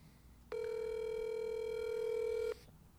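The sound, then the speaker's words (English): A single steady ringback tone from an outgoing phone call, a clear electronic buzz lasting about two seconds before cutting off, heard alone over faint background hiss. “Let's see if he answers.”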